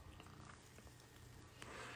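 A cat purrs, a steady low rumble running through the whole short moment, with a brief brighter rustle near the end.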